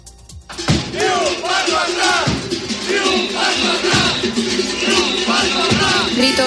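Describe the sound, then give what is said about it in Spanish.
A protest crowd chants loudly in unison, shouted phrases repeating in a steady rhythm with strong accents roughly every second and a half, the mass of voices continuous and dense throughout. “parecidos al que estás escuchando se repetirán este viernes en las Islas Canarias y en la provincia de León.”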